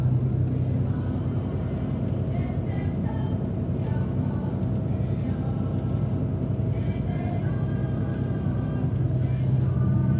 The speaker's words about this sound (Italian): Ecco, a rendere la situazione più drammatica, non so se riuscite a sentirli in sottofondo, ma ci sono dei canti maori che ha messo su l'autista del, dell'autobus, canti maori di Natale. Quindi provo a farveli sentire, vediamo.